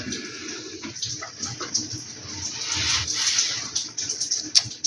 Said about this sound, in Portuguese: Esse barulho de água é o chuveiro. O pessoal do andar de cima usa, cai um pouco de água no meu chuveiro daqui.